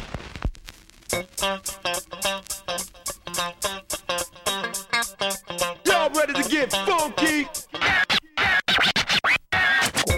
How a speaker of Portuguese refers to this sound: Então vamos nessa aí, reflete com a gente e solta o scratch.